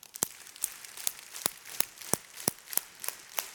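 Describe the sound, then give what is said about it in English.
An audience claps about ten times with their hands held the other way from usual, in a steady, even rhythm, each clap a sharp, crisp slap with a short rustle between, fairly soft overall, with no talking. “Okay, now clap the other way 10 times.”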